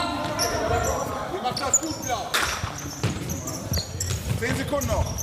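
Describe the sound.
A futsal ball, slightly smaller and with reduced bounce, is dropped and thuds against a hard indoor floor in a run of dull bounces, with people talking in the background of an echoing hall.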